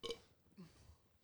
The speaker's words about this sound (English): Have you just burped on our podcast?